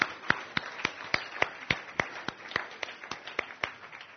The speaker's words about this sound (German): Da, ein kräftiger Applaus.